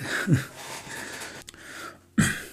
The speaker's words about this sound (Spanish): Madre mía, cómo suena el sofá, ¿no?